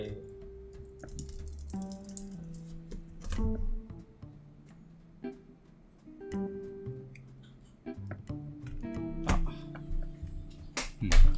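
Someone types on a computer keyboard close by, producing a rapid, irregular run of sharp key clicks, with a few louder taps and a faint tonal murmur in the background.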